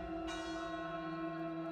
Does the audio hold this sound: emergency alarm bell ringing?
yes